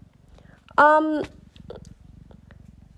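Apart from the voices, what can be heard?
cat purring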